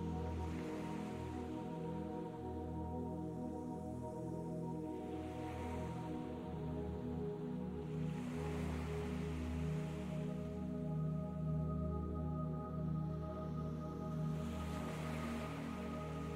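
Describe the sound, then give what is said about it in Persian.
Soft sea waves swell and wash in every few seconds, a gentle hiss rising and fading over a steady, low musical drone; no one speaks. “صدای امواج دریا جسم و ذهنتون رو آروم میکنه”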